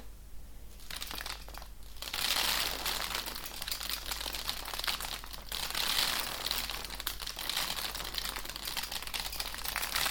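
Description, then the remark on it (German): Lentils poured from a glass jar over a houseplant make a steady, dense patter of small hard grains onto leaves for several seconds, a crisp rustling hiss with tiny ticks, fairly loud, swelling slightly in waves, with no voices. “Ich werde jetzt die Linsen über diese Pflanze auskippen und dann hoffe ich, dass man so ein bisschen Urwald, Regenwald, Atmosphäre hat.”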